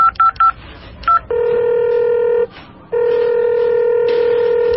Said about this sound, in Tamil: murder கேஸ்ன்ற விஷயத்த சொன்ன உடனே எதிர்முனையில இருந்தவங்க போனை கட் பண்ணிடுறாங்க